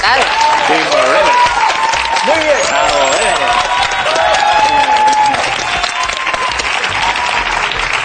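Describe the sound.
Loud, sustained audience applause fills the whole stretch, a dense crackle of many hands clapping at once, with a few voices calling out and murmuring through it.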